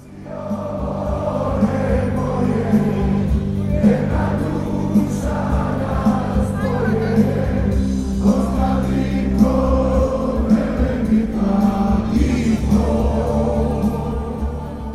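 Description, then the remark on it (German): A large crowd sings Schlager songs together in a loud, continuous swell of voices, a festive chant rising and falling over a dense, steady roar of celebration, celebrating the acquittal of two killers. “Schlagersingend feiert die Menge hier also den Freispruch für die beiden Killer.”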